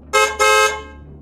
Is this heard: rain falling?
no